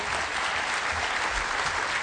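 An audience applauds their leaders, a dense, steady wash of many hands clapping at once, holding a fairly even loudness for about two seconds with no voices standing out.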